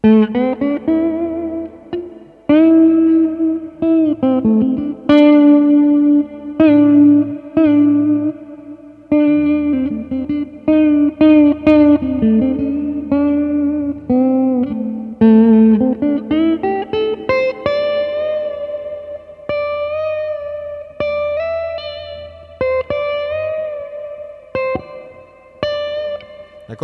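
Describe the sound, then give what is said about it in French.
An effects-laden electric guitar, played with the thumb by the bridge while working the tone knobs and vibrato to approach a guitarist's sound, plays a melodic line, with sustained, bright notes ringing over a low drone and occasional plucked attacks, loud and continuous with a slight wobbling vibrato. “donc … a tendance à jouer vachement vers là, vers le, chevalet, avec le pouce.”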